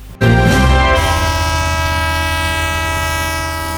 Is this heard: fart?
no